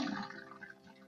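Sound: running water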